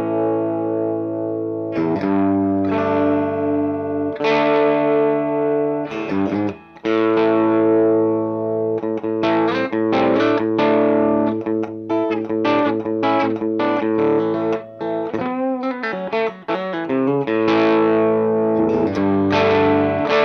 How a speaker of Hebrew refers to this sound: אבל הגיטרה עצמה, לא שינינו שום דבר במגבר. הגיטרה עצמה, אנחנו, אה, אתם שומעים אותה עכשיו על הברידג' פיקאפ אה, שלה.